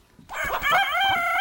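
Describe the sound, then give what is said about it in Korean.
A rooster crows once, loud, a long bright harmonic call that starts abruptly after a brief quiet moment and holds steady with a wavering, drawn-out tone. “닭이 회치는 소리, 닭의 울음소리 여러분들이 꼭 찾아주셔야 되겠습니다.”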